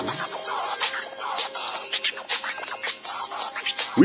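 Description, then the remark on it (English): A hip-hop party track playing at a venue in 1994 plays loud and steady, with sharp turntable scratches cutting through a busy, bright mix and a punchy rhythm throughout. “Now, as soon as I walked in, here's the song that they had.”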